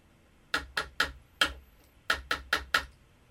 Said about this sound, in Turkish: Ee, kısa bir ritim vuracağım